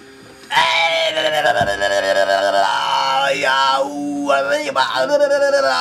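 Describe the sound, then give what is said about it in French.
A voice imitates a long, agonized scream, loud, a sustained strained wail that wavers and cracks for several seconds with no ordinary speech. “tu l'entends hurler vraiment à la mort.”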